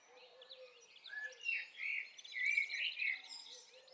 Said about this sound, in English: The beautiful blackbird.